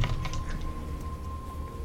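household object, dice being rolled

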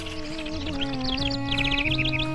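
bird, wren singing

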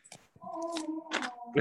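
animal, dog snoring

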